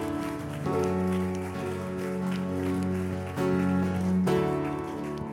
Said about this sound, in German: Yes, geben wir Gott einen riesen Applaus. Yes, Jesus.